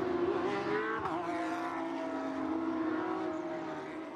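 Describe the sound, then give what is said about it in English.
Porsche race car engines roar steadily at high revs during a 2022 Porsche Carrera Cup North America race at Road Atlanta, the tonal drone sliding slightly in pitch as cars pass along the track, loud and continuous with no voices. “Porsche Carrera Cup North America 2022: Road Atlanta race 1”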